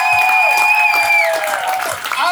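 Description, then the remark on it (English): Loud, steady applause from a crowd at a Democratic event in Virginia for the House and delegate candidates fills the whole stretch, with a high sustained whistle or cheer riding over the dense clapping. “And please give all these candidates, House and delegates, a round of applause”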